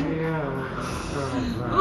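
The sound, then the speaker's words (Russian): A person lying down forces out a long, strained, rattling wheeze, a theatrical imitation of a death rattle that continues unbroken for about two seconds, swelling slightly at the end. “Дайте мне хрип, предсмертный хрип.”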